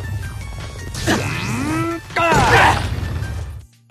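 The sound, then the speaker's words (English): A vertical suplex wrestling move from the video game No More Heroes: swooping tonal whooshes and grunting sounds build into a loud crashing slam, all over a steady low rumble that cuts off abruptly at the end. “here's a breakdown of every wrestling move in No More Heroes, and it's like, well, if I ever wanted to learn the difference between a a German suplex or a vertical suplex, I now know that the latter one sounds like this.”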